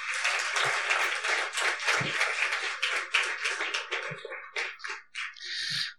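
A church audience applauds in blessing and gratitude to welcome a speaker, with steady, dense clapping that gradually thins out, leaving scattered individual claps trailing off toward the end. No one speaks.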